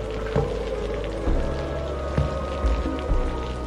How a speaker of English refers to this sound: Then the lightning almost ceased. Only the howling of the wind remained, the violent patter of the rain